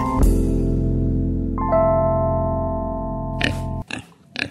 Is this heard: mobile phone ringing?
no